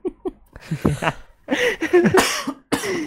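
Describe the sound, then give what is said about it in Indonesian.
A bout of coughing from an itchy throat: a couple of short dry coughs, then several harsher, throaty coughs in quick succession with a bit of throat clearing, no talking. “kita lagi ngomongin batuk tenggorokan gue langsung gatel anjing”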